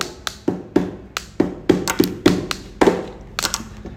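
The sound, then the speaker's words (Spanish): Pens tap out a quick, uneven rhythm on a piece of MDF, each hit a short woody knock, some brighter and clickier than others, clear with no voices. “Sí, con lapiceras y, una descripción rara que lapiceras y un pedazo de MDF.”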